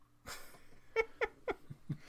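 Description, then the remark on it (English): A female pet cat meows several times in quick succession, short insistent cries about a quarter second apart, with soft breathy noise before and between the calls. “Tell our cat to shut up. Shut she up. keeps yelling at us.”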